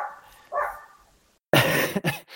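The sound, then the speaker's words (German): A dog barks twice, a short muffled woof followed after a pause by a louder, sharper bark with a quick yip at the end. “Und wenn der Hund Ruhe gibt, ähm, ähm, sprechen wir da kurz drüber.”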